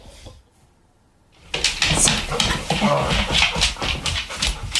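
After a quiet start, dogs scramble across a hard floor, a busy, close stream of pattering paws and clicking claws with bumps and scuffs that keeps going without a break.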